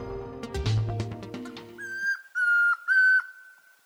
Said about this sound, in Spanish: Este es el trino del y comprapán, un nombre que imita su canto. Es un pájaro tímido, principalmente terrestre, de unos 18 centímetros de alto, que tiene la cabeza y la nuca de color naranja rojizo con el vientre blanco